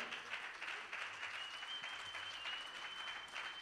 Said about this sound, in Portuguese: Podemos dar um aplauso ao Senhor?